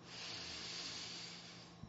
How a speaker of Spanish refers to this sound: Una respiración profunda